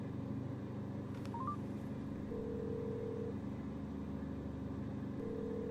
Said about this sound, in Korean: 금수 씨는 아버지의 전화번호를 눌렀다.